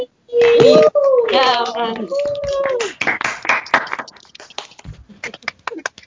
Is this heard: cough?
no